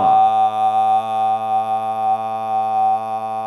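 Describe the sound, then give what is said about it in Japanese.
A steady synthesized tone, an isolated upper harmonic (around the ninth or above) of a speaker's voice, roughly the note G, holds one unchanging pitch for a few seconds, clear and fairly loud, with a faint buzzy layer of softer overtones beneath it and no voices. “で僕の声は第何倍音だえー、っと第9倍音以降くらいがちょっと強く出てるのでそこら辺の音聞いてみましょう。”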